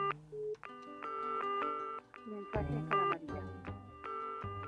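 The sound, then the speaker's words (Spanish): A telephone ringtone plays a bright electronic melody of short, repeating notes, loud, with nothing else around it. “Atendé el teléfono.”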